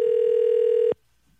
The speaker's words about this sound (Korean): 8208님한테 전화 한번 걸어보겠습니다.